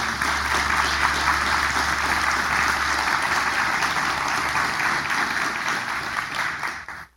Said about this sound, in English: And I want to thank her this morning, and I'd ask that you guys would give her a round of applause for all that she has done.